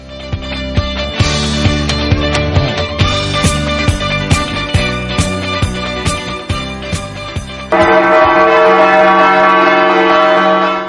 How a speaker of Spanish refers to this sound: La Hermandad del Santísimo Cristo de la Vega ha puesto en marcha una campaña de restauración de las campanas de la iglesia de Nuestra Señora de la Asunción, y es que en tiempos pasados nuestros mayores acordaron colocar 11 campanas que dan esplendor